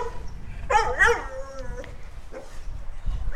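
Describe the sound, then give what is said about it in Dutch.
A dog barks and yips a couple of times in the background, with whiny, high-pitched tones and a faint whimper, over a quiet low background rumble. “Ik weet niet of je het geblaf op de achtergrond kan horen.”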